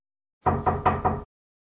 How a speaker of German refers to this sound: An der Tür klopfen.